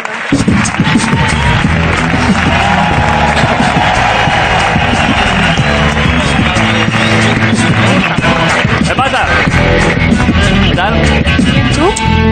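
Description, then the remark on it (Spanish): A crowd applauds and cheers loudly and steadily throughout for Arturo Valls and a friend, a dense wash of clapping mixed with shouts and whoops, with some voices talking underneath. “un aplauso para ellos”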